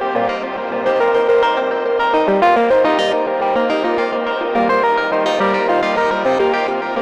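Glitchy modular synth tones repeat through stuttering Mimeophon delays that are smeared into a dense wash of reverb by a Halo and glitched by a Data Bender clocked from a Pico R&D, a steady, loud, shimmering texture with broken, chopped-up echoes and no voices.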